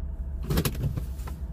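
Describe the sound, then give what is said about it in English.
A car idles in traffic while waiting on a train, a steady low engine rumble heard from inside, broken by a couple of brief mechanical whirs and clunks. No one speaks. “in traffic waiting on a train”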